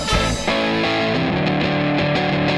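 A loud rock song with heavily distorted electric guitar chords, full and dense, playing continuously with a steady driving rhythm and no talking.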